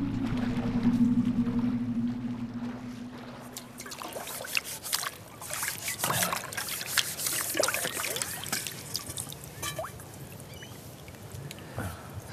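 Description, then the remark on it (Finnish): Dishes being washed by hand after a mushroom dinner on the south shore of Lake Näsijärvi: water trickles and splashes while plates and utensils clink and knock in quick, irregular bursts, with a low steady hum fading out early on. “Kiva tiskaa.”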